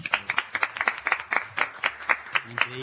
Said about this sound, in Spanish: No sé si estaba en la guía eso. No, no estaba en la guía. Aplauso improvisado.